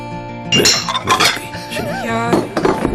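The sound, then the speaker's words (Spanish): Dishes and cutlery clink and clatter in several bright bursts as wine and ham are served, with plates set down over a steady background hum and brief voices murmuring underneath. “por cierto, aquí tienen el vinito y el jamón.”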